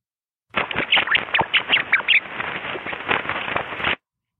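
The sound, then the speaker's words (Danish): A dense, rapid stream of chirps and squawky squeaks: a recording of rats laughing at about 50,000 hertz, slowed down to audible pitch so it sounds oddly duck-like, playing continuously for a few seconds with no voices over it. “Vil du gerne høre, hvordan rottegrin det lyder”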